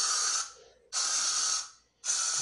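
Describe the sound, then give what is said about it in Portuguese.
Three loud bursts of aerosol insecticide spray, each a sharp, bright hiss lasting about half a second and trailing off, separated by brief pauses, with no voices. “Vou encharcar essa porra.”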